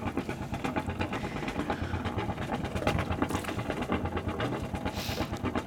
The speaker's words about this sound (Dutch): Oh, oké, daar gaat hij. Motor gestart. Lekker geluidje. Ik hang nu aan de achterkant van de boot te kijken wanneer de antivries eruit komt.